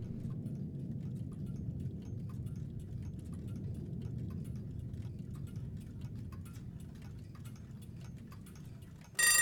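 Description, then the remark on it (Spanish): Several clocks ticking together in an irregular overlapping patter of sharp little clicks, set against a steady low rumble, with a sudden louder burst right at the end. “De hecho, ahí se empiezan a escuchar los relojes.”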